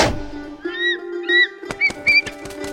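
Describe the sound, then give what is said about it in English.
Several thin, high-pitched eagle cries rise and fall over a low steady hum, followed by a quick series of sharp flapping bursts as the calls continue, as Otto turns into an eagle and flies back home in a story. “Once he was gone, Otto turned into an eagle again”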